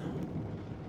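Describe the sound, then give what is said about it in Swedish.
A low, steady rumble of thunder rolls outside beneath a soft patter of the first raindrops falling against the windows, filling the brief moment with a dense, continuous storm sound and no voices. “Du kan höra mullret utanför och de första regndropparna som börjar falla och slå mot fönstren.”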